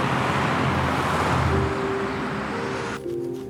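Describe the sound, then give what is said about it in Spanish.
An ambulance drives through city streets, a steady, loud rumble of engine and road noise with a faint sustained tone rising out of it partway through, with no talking. “La ambulancia sigue recorriendo las calles.”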